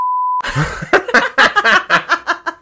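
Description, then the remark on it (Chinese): A single steady censorship bleep covering a swear word, a pure high-pitched tone held for under half a second, cuts off abruptly and gives way to rhythmic bursts of laughter. “我最近都好多哔哔哔啊， 好好笑。”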